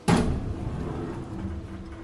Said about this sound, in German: Die Aufzugtür schließt sich.